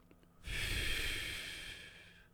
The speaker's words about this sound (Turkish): bastırdığımız anda ağzımızdan havayı dışarıya verelim. Bakın.